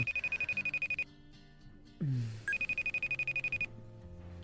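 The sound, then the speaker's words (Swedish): A phone rings for an incoming call: two loud bursts of rapid electronic trilling tones, separated by a short pause with a brief murmured voice. “Se ifall hon ringer tillbaka.”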